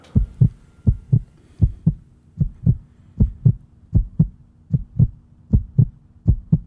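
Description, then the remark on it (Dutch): A human heartbeat at rest thumps steadily in clear lub-dub pairs, about nine beats of deep, muffled pulses at an even, moderate pace with no talking. “Dat is dus van een mens in rust, min of meer.”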